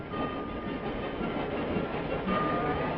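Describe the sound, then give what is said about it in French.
A train rumbles steadily along the rails, a loud, continuous mechanical roar with a faint rhythmic clatter running through it, no voices. “Peut-être pense-t-elle que les trains ont été faits pour voir paître les vaches.”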